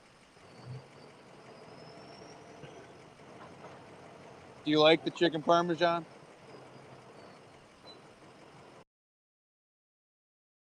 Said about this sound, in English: You can't hear me. Turn off your diesel.